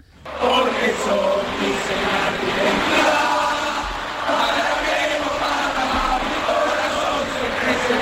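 A football stadium crowd of about 15,000 spectators in Córdoba roars and cheers on a rainy Wednesday, a weekday, at noon: a dense, steady wall of many voices that stays loud for about eight seconds, easing only briefly midway before swelling again.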